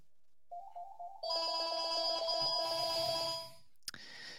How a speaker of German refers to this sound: Äh, ich werde gerade, glaube ich, wieder von einem Meinungsforschungsinstitut angerufen. Äh, deswegen klingelt das Telefon gerade. Hast du Festnetz ähm, oder ist das ein Mobilfunk? Das ist Festnetz.